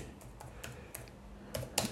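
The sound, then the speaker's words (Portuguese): Irregular clicking of keys on a computer keyboard as someone types with one hand, fairly quiet, with a few sharper taps near the end; no voices. “Tô digitando com uma mão aqui, tá?”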